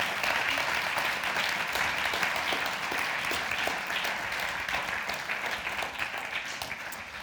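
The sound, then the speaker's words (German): Steady audience applause fills the whole stretch, a dense wash of many hands clapping at an even level that tapers off only slightly toward the end, with no talking over it. “Großes Dankeschön, das ist euer Applaus.”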